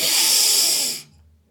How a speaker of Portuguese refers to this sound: Então, mais 5 segundos de respiração. Vamos lá.